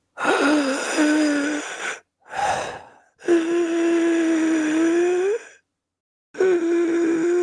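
Heavy, labored breathing of a wrapped-up figure: long strained, wheezing breaths drawn in and pushed out with a rough, rasping edge, separated by short pauses, with no talking.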